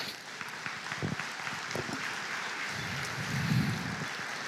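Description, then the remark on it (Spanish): Congregation applause for the Lord fills the whole stretch, a dense, steady wash of many hands clapping at even loudness, with a brief low murmur of voices rising near the end. “Aleluya, dale un aplauso al Señor.”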